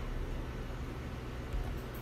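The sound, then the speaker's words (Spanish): A device's selected "Ocean" background sound plays a steady, rumbling wash of ocean waves, continuous and fairly soft, heavy in the low end with a faint hiss above and no individual breakers standing out. No voices. “Océano. Seleccionado. Océano.”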